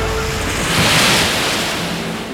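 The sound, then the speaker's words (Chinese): Sea waves surge in a steady, rushing roar as the sea parts, its water standing up like walls; the roar swells to a peak about midway and then slowly eases off, with no voices present. “海水立起来像墙壁，海底可以走路。”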